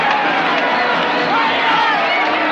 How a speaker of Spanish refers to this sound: En la calle continúan los fuegos artificiales. La gente abarrota la calzada y se abraza feliz.